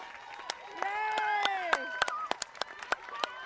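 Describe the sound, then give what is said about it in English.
Spectators at a race finish line cheer and whoop loudly, several voices rising and falling together while sharp, scattered handclaps and bangs punctuate the noise throughout. “And the amount of cheers you can hear from the spectators is simply amazing.”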